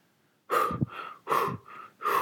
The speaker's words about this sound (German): Hier sind einige Beispiele, wo uns das Atmen im Alltag begegnet. Hörbeispiel 1. Bei Nervosität.